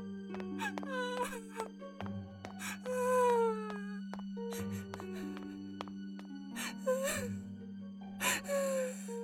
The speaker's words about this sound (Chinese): 唯有一串微弱的哭声，听得格外真切。